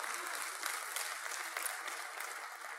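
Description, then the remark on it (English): A church audience in Lafayette Parish claps steadily, a dense wash of applause that holds at an even level without pause for a few seconds. “Give yourselves a hand.”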